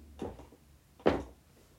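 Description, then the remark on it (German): A chair shifts and creaks twice: a softer wooden bump, then a louder, sharper knock under a second later, with no voices. “Sorry, das war der Stuhl.”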